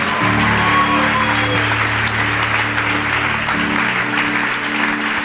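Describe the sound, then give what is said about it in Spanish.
A church audience breaks into loud, sustained applause for Jesus Christ, a dense wash of clapping that holds steady for several seconds while low sustained instrumental tones hum underneath. “Pero quiero darle un fuerte aplauso a Jesucristo por alcanzarlos.”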